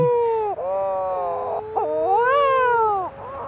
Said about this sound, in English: I love the sound of mutton birds moaning.